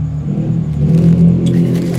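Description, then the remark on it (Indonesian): A motorcycle engine drones loudly through a noisy exhaust, its deep, steady rumble swelling briefly into a rev midway before settling back, with no one speaking. “lagi rekaman yang disiap berisik banget sumpah wangi-wangi kok anak Lego. gawe podcast yo ya jenenge tek nang kota knalpot”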